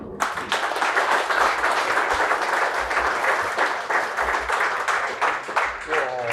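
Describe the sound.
An audience in a sports bar applauds steadily, a dense wash of many hands clapping that stays loud throughout, with a few sharper individual claps standing out and a voice starting up faintly at the end.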